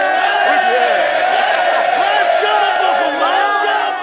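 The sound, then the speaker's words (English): A large crowd of fans cheers and shouts, many overlapping voices rising and falling in pitch to form a dense, loud, continuous roar that holds steady for the whole stretch. “But if we multiply this cheering fan by tens, hey, hey, and then hundreds, hey,”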